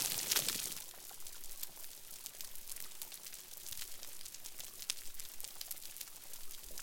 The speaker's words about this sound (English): Now, here's the sound of a similar but degraded reef, a reef that has been damaged by humans.